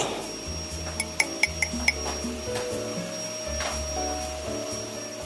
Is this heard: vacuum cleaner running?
yes